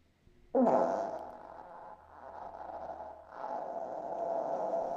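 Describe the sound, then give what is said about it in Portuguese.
A recorded fart bursts in abruptly and keeps going for several seconds, a loud, buzzy, rumbling drone that dips briefly midway before swelling again and sustaining to the end. “É um bom peido.”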